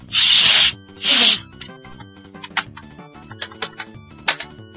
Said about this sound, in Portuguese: Esse é o barulho icônico, né, cara? Assoprar a fita e colocar no Super Nintendo, né? Que demais, né?